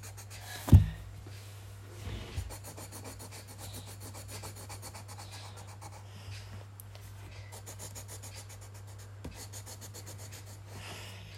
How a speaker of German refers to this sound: Und im Hintergrund könnt ihr hören, ich mal es wirklich. Also es ist nicht irgendwie so fake und ich habe es davor schon gemalt.